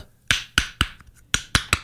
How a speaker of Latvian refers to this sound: Bet tad, kad jūs uh, redzat divas pusatvērušās austeres, kuras skan šādi